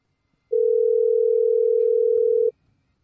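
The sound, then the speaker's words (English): A steady, unbroken telephone dial tone hums loudly for about two seconds as a call is placed during a QSJ Radio show, starting and stopping abruptly, with near silence around it and no voices. “Better go ahead and get my mans and them on the phone right now.”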